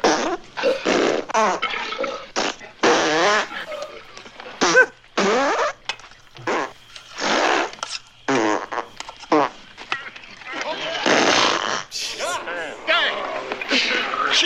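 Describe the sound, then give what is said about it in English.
A rapid, overlapping chorus of loud farts, some long and sputtering, mixed with wet, gurgling belches, bursting out one after another with only brief gaps for about fifteen seconds, from a Mel Brooks scene of cowboys eating beans around a campfire. “you get a nice uh, melange of farts and yes. wet belching.”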